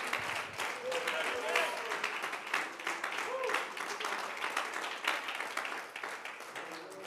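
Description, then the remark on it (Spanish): An audience applauds steadily for several seconds, a dense wash of many hands clapping at an even loudness, with faint voices and murmured praise mixed in beneath the clapping. “Y si alguien valora, bríndele ese aplauso a Él y esa alabanza con sus labios.”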